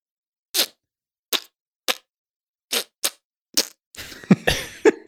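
Spiced ketchup squeezed from a squeeze bottle onto a microphone: six or seven sharp airy puffs at uneven intervals, then a longer wet, sputtering spurt as the bottle empties, fairly loud, with no talking.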